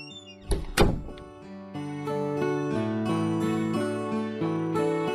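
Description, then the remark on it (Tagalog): A door is shut by someone leaving, with a single solid thunk near the start, and sustained music rises and carries on steadily for the rest of the moment. “Pakisara mo na lang ang pinto ah kapag lalabas ka na.”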